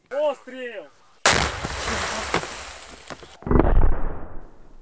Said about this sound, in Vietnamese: Còn tại thành phố Bakhmut, miền đông Ukraine, họ đang bị phía Nga pháo kích dữ dội.